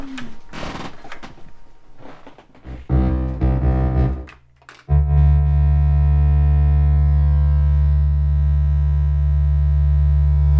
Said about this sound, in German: Und die Verschiebungen, die hört man auch. Also zum Beispiel dieses Veloblinklicht, wenn man das anhört, tönt das so.